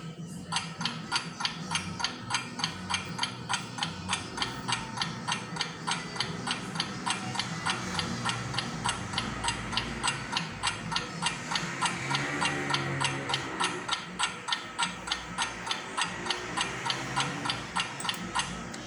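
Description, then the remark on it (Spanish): An alarm clock, being set to wake early for a flight, ticks steadily for the whole stretch, a fast, even run of sharp, crisp clicks with a faint low hum underneath and no voices. “El vuelo salía a las 3 de la mañana, así que me dispuse a poner el, poner el despertador para levantarme temprano y llegar al aeropuerto.”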